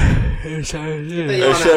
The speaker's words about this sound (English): Cut that yawn out. Keep that in. Actually, it's pretty good. You know, that's sound like I died.